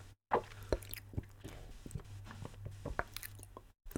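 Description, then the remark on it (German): Quiet wet gulps and mouth clicks, a person holding their breath and swallowing hard three times in a row without breathing in between, brief pauses between gulps, no talking, over a low steady hum. “Alle jetzt mal die Luft an. Und dann dreimal ganz kräftig schlucken, ohne nochmal halt dazwischen zu atmen.”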